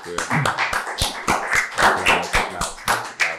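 hand clapping

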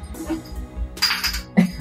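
coffee cups clinking

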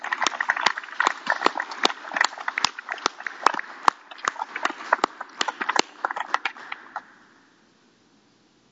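applause

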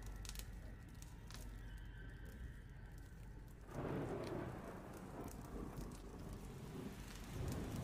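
thunderstorm with rain

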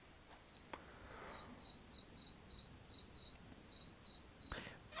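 cricket chirping

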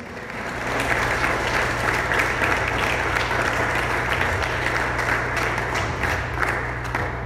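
audience applauding loudly

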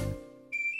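person whistling

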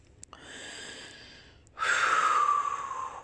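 deep breathing

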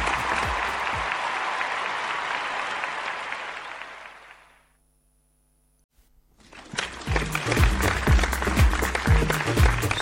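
big round of applause

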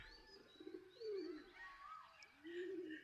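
pigeon cooing

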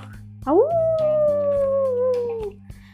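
wolves howling

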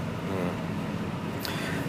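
car driving

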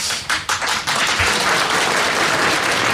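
audience applause

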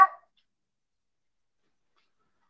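dog barking

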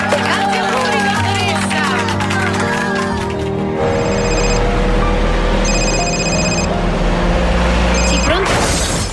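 telephone ringing

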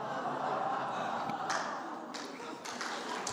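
audience clapping

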